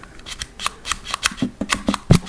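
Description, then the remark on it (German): The airflow control ring on top of a pod device with a 4 ml pod being twisted left to close the airflow, giving a quick, slightly irregular series of sharp, dry ratcheting clicks, about a dozen in two seconds, with no voices over it. “Also wenn er das einmal nach links dreht, habt ihr die Airflow zu.”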